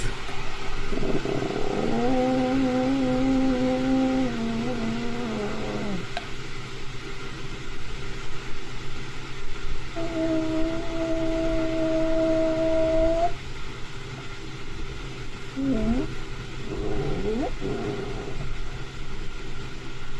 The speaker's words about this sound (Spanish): esta chava dice que no era ningún animal y eh, es un sonido de, del Sasquatch afuera de su casa de campaña. Ahí va.